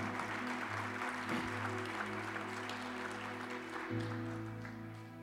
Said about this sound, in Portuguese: Agora, pode, você começou a aplaudir, pode aplaudir se quiser.